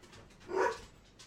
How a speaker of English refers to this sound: Um, those are my dogs, everybody. You're hearing them. My dogs are excited about something.